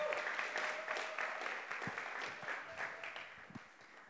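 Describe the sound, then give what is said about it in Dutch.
Steady audience applause for a woman invited to come forward, a dense wash of many hands clapping at a constant level for several seconds before easing off slightly toward the end. “Zullen we haar een applaus geven?”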